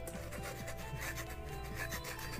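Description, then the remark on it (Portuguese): A pen scratches rapidly across paper in a steady run of short, raspy strokes as Light writes the name Lindy L. Taylor in an anime scene, a dry scraping texture that stays fairly even in loudness throughout, with no voices. “E ele escreve o nome de Lindy L. Taylor com tanto gosto que sai um rangido da caneta.”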